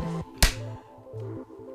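One sharp, loud hand clap, made to synchronize a recording, cuts through a low, steady humming tone, then fades quickly, leaving only the hum.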